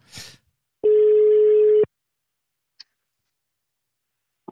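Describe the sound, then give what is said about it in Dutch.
A telephone ringback tone sounds once: a steady, loud one-second beep, followed by quiet with a faint click, as the call waits to be answered. “Komt-ie. hij, hij belt al.”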